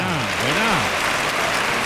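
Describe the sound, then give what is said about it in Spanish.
A large bullring crowd at a bullfight claps steadily for a bullfighter's cape pass (quite), in a dense, continuous wash of applause, with a voice swelling and falling in a cheer near the start before the clapping carries on alone. “Bueno, muy jaleado el quite y muy aplaudido el quite.”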